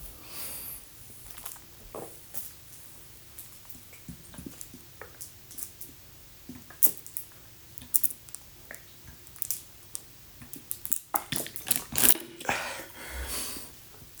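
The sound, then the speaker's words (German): Close-up drinking sounds: wet sips, swallows and small mouth clicks in an irregular series, with a couple of louder gulps near the end and no talking. “Ja, Leute, Prost Wasser, würde ich sagen.”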